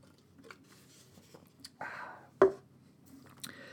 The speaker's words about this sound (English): I, let me take a nice swig of my coffee. Get ready for this.